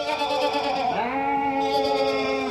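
A sheep bleats in one long, wavering cry, loud and close, its pitch dipping briefly before holding steady. No one speaks.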